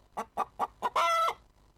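A chicken clucks four times in quick, even succession, then lets out a longer, drawn-out squawk, clear with no talking, in a Nikki Haley campaign ad depicting Donald Trump as a chicken.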